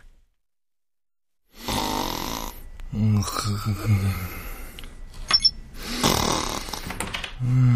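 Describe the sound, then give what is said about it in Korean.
Loud, rasping snores from a sleeping person, coming in three long rattling breaths after a moment of silence, each rumbling and throaty. “아, 잠들었어. 완전 코로 떨어졌는데.”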